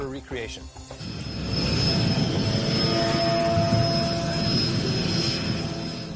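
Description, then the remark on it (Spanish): A small propeller plane's engine drones loud and steady, swelling up after a brief quieter moment at the start and holding a constant roar with a faint whine; a light aircraft carrying thermal cameras, flying off the coast of Mexico. “Ahora tenemos que reunirnos con un piloto en Campeche para volar en una avioneta con las cámaras termográficas al punto exacto.”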